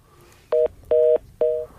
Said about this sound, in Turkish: hattan düştü galiba. Ee, evet geri bir teknoloji sesi geldi deyip. deyip evet deyip, aynen deyip. konumuza çok uygun bir sesle e, yayına devam etmiş olduk.